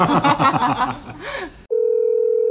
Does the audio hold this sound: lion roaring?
no